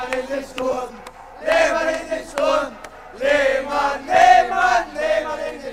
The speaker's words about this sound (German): gab es so einen äh, Gesang unter den Fans, Lehmann in den Sturm. Und als er in die Kabine kam, haben die Mitspieler das halt gesungen. Nicht nur die Mitspieler, auch die Fans. Lehmann!